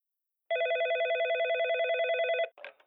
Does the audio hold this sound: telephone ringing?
yes